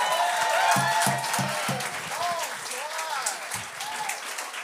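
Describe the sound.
A crowd applauds loudly with dense, continuous clapping, mixed with scattered whoops and cheering voices rising and falling throughout.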